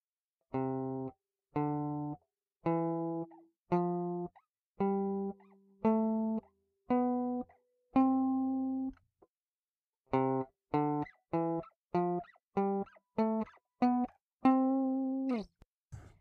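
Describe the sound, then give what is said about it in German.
A C major scale sounded as clean, buzzy synthetic tones: eight separate notes stepping along with pauses between, then a quicker run of notes ending on a longer held tone. No one speaks. “Das war also die C-Dur-Tonleiter.”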